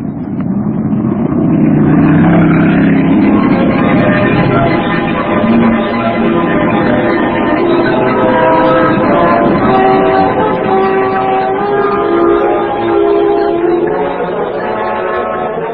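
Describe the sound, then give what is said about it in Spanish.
A sports car's engine roars steadily, its whining tones shifting in pitch as it speeds through city traffic, weaving between double-decker buses and cars, with surrounding traffic noise, loud and continuous from start to finish. “el veloz auto Sport de marca aristocrática, guiado por las manos diestras de Calimán, avanzaba vertiginoso serpenteando entre autobuses de dos pisos”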